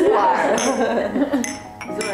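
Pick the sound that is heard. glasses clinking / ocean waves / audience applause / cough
glasses clinking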